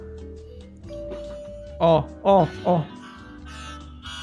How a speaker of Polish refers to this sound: To jest mój dzwonek, to jest mój dzwonek.